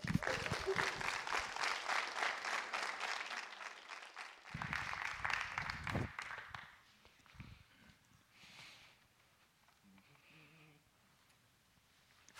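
An audience bursts into steady, dense applause for about six seconds, then the clapping fades out into quieter shuffling, with a few soft scattered sounds afterward.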